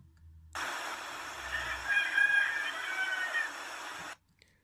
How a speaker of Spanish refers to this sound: Los gallos empezaron a cantar.